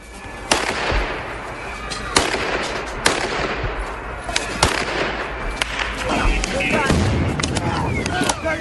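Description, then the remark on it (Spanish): Sharp gunshots crack out irregularly, several of them, over a dense, constant roar of a crowd shouting and screaming in chaotic unrest in Ukraine. “No, sí balas, eh, gente gritando, desespero, caos.”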